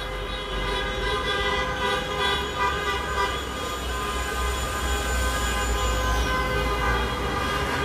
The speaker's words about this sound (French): Le Maroc est qualifié pour la Coupe du Monde. Ça y est, les klaxons dans Rabat.